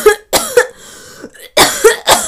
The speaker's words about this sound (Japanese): だから、多分空咳なんですよ。それ自体に、あのコロナの菌とかがもう含まれてはないのかもしれないんだけど、でも、その咳してるのさ、近くで聞いてたら絶対不安になりません皆さん。